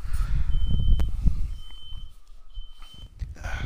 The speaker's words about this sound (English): Yeah, like, what is that, buddy? fire alarm for some reason. Everybody's uh, gonna burn alive.